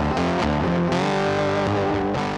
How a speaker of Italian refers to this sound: Si sente a un certo punto di nuovo il rumore della chitarra e poi tre note suonate a ripetizione, in scala ascendente prima e discendente poi. Si, do diesis, re